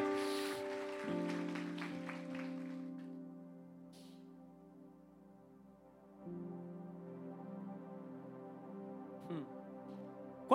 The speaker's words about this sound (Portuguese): Aplauda Jesus, coloque-se de pé nessa hora.